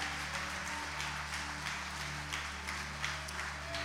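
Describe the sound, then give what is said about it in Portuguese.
An audience standing and applauding Jesus as loudly as they can, in a steady, dense wash of clapping that holds at an even loudness for several seconds, with a sustained low musical drone underneath. “Aplaude Ele o mais forte que você puder.”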